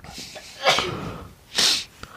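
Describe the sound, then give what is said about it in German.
A single loud sneeze: a breathy, rising build-up followed about a second later by a sharp, hissing burst, then quiet. “Gesundheit übrigens.”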